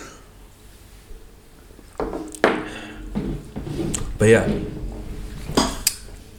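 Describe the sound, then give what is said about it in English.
Several sharp clinks and knocks of shot glasses tapping together in a toast and being set down on a hard surface, spread over a few seconds, with a brief bit of speech in between. “Uh, let, you know, let's take this shot before we talk about this.”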